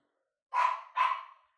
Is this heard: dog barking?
yes